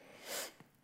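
A single sneeze: a sharp, breathy burst of noise that swells and fades within half a second, followed by a brief, softer sniff-like puff. No one talks.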